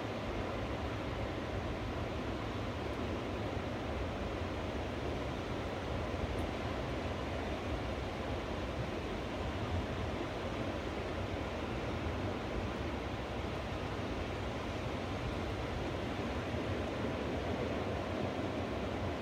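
A steady, unbroken roar of ocean surf washing on the shore, fairly loud and even throughout, with no distinct breaks between waves and no voices.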